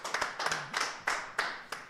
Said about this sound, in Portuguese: Jesus, uma salva de é. palmas, galera!